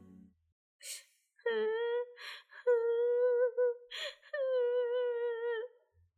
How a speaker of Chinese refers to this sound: 你听，你听，有人在哭哎，真的是哭声。众人慢慢的、慢慢的往石头靠近，发现躲在石头后面哭泣的是一个小女孩耶。